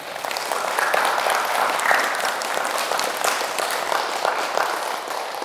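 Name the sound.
audience applause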